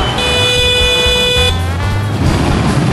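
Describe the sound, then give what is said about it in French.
A motorbike horn blares in a steady honk for over a second, then a second lower horn sounds briefly, all over the loud, constant rumble of busy motorbike traffic on a street in Ho Chi Minh City, Vietnam. “Accessoire indispensable, le klaxon. Surtout pour dire attention, j'arrive.”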